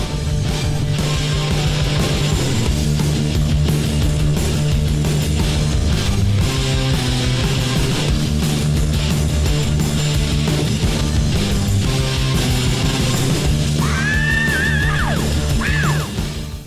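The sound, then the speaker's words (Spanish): A loud, dense heavy metal recording from 1983 with distorted guitars and pounding drums, and near the end high, wailing screamed vocals cut through the music. “Esos alaridos indican otro cambio de cantante.”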